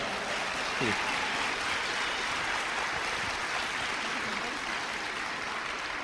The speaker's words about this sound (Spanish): Date un aplauso por eso. Date un aplauso.